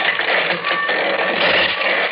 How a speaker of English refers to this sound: Ah, another one of these sliding doors.